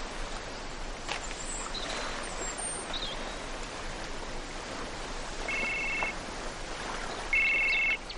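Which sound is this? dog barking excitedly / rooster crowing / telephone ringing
telephone ringing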